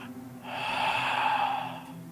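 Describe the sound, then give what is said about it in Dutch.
A voice imitates an eerie sigh: one long, breathy exhale of about a second and a half that swells, holds with a hollow, airy tone, then fades away. “En eh, ja, echt ongeveer een vijf minuten later of zo, hoorde ik hetzelfde gezucht. Ik zal hem straks nog eens nadoen, voor het extra detail.”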